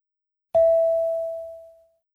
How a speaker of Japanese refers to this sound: Next, Take role A and talk to B. Speak after the tone.